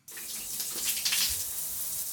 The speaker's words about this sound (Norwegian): Kan du ta tida på meg mens jeg dusjer? Fra nå. Vi er der nå. Eldstejenta tar tida på meg i dusjen. Det har blitt dyrt å dusje i Sør-Norge med dagens eh, strømpriser.